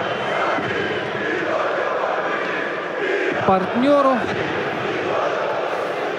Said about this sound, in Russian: Завели сейчас динамовские болельщики. Очень громко сейчас поддерживают свою команду.